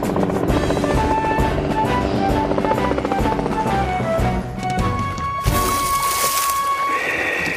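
helicopter flying

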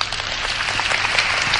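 audience applause

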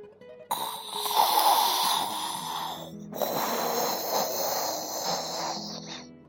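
bear cub yawning

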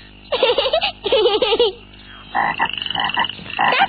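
frog croaking

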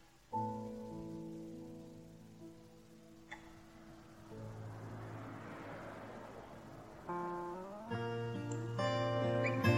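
rain falling

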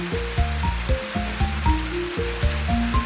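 rain falling

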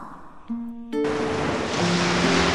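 ocean waves

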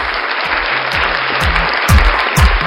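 applause

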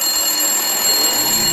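telephone ringing

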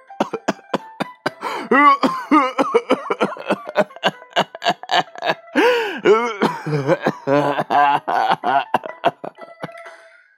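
violent coughing

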